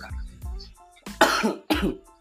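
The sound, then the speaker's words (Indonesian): Two harsh, noisy coughs burst out in quick succession after a few soft murmured sounds, with a thin, band-limited quality, heard over a telephone call made with a headset. “Kenapa batuk ya telepon Anda ya?”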